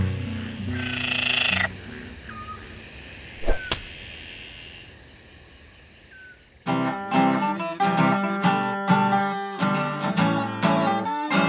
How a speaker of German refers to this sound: Das Zirpen der Grillen war von überall zu hören und schon bald fielen die beiden in einen tiefen Schlaf.